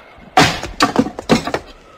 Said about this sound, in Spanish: El mayordomo blandió el hacha. El golpe hizo estremecerse el edificio y la puerta saltó contra la cerradura y los goznes.